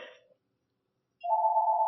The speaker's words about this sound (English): Sorry, my other phone is ringing.